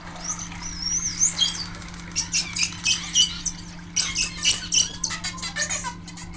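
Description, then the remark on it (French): High, sweeping whistles from animals being aggressive toward one another rise and fall in quick succession, broken by harsh, buzzy, trumpet-like bursts, all over a steady low hum with no voices. “Au début du premier enregistrement, on entend des sifflements. Donc, ça peut être des signaux de signature”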